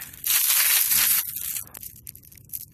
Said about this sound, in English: Opens a Plastic Bag with His Teeth